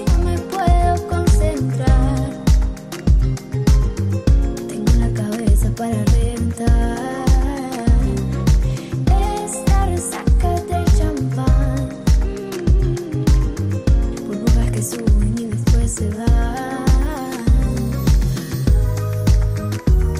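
A pop song cover plays on its own with no talking, driven by a steady, punchy beat under full, layered instrumentation at a consistent, fairly loud level throughout.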